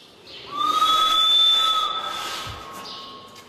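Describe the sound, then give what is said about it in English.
A sustained reedy harmonica note, blown steadily by Shanti, an animal, on a harmonica fastened to a wall of her enclosure, holds one pitch with a faint higher overtone for about two seconds over a soft breathy hiss, then fades gradually. “Shanti plays slash plays with the harmonica.”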